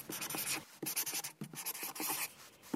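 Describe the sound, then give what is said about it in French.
A pen scratches steadily across paper in short, tight strokes as a woman writes, with brief pauses between bursts of writing. No one speaks. “Elle écrit et, c'est une façon de, vivre son amour pendant l'absence.”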